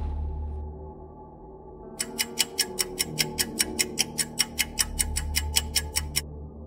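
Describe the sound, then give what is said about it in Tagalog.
A clock ticks steadily in quiet surroundings, a crisp, even run of about twenty ticks that begins a couple of seconds in over a low, quiet hum, with no voices. “Tahimik ang buong paligid. Tanging ang tunog mula sa orasan ng kanyang naririnig.”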